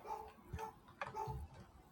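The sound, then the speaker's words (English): A dog barks faintly, several short, evenly spaced yaps over a couple of seconds against a quiet background. “the dog's gonna bark. Nothing I can do about it.”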